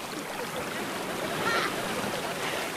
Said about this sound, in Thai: จนกระทั่งวันหนึ่ง สายน้ำก็ได้มาพบเข้ากับพวกพ้อง ที่ไหลมาจากทุกทิศทาง